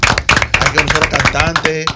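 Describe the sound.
A studio audience bursts into steady applause to welcome a guest onto a Spanish-language show, many overlapping claps forming a dense, loud crackle for about two seconds, with some voices and cheers mixed in beneath it.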